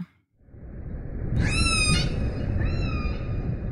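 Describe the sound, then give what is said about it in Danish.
An orca gives two high, squealing whistled calls, the first louder and longer, the second softer and slightly upswept, over a steady rushing underwater hiss. “En spækhugger.”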